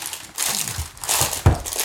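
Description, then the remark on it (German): Crinkling of an Oreo Matcha Ice Cream flavour snack pack being opened, a dense run of crackly rustles in irregular bursts with a sharper crunch near the end, fairly loud and without speech. “es knistert, das also ist noch halbert.”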